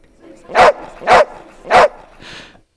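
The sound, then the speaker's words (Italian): A corgi barks three times in a steady, evenly spaced rhythm, loud, followed by a softer, shorter yap as the barking trails off. “Ecco, ne avevamo proprio bisogno per risvegliarci Questo questa mattina. Corgi, eh”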